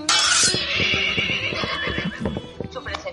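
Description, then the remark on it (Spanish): A horse whinnies loudly, starting with a shrill burst and trailing off into a shaky, quavering neigh over a few seconds. “San Jorge, que había sido soldado antes que santo, cogió su espada, su escudo y su lanza, le pidió prestado a Santiago su famoso caballo blanco y se vino para acá”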